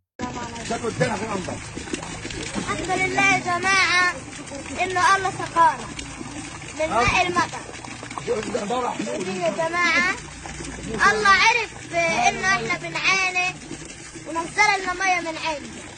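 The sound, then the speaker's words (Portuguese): Steady rain hisses throughout while a young Palestinian shouts joyfully, praising God for the falling rain, with repeated high, excited cries rising over the constant downpour. “aquela que nos faz acreditar na paz, vem de uma criança, um jovem palestino que louva e vibra a chuva que cai, como que num presságio da bonança que está perto.”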